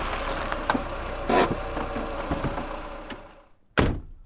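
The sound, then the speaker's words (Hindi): A car engine rumbles steadily as a car approaches from behind at Little Dale Reservoir on a moonlit full-moon night, dropping away toward the end, then a single solid thunk like a car door shutting. No one speaks. “full moon का picture खींचने के लिए जब वे दोनों ट्राईपॉड में कैमरा सेट कर ही रहे थे कि अचानक पीछे से एक गाड़ी के आने की आवाज आई”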